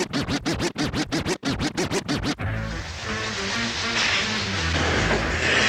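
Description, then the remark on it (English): A hip hop track intro opens with a quick run of rhythmic, choppy scratch-like bursts, then drops into a loud, dense beat with a low bass line and a hissy top end. “On va repartir avec un morceau”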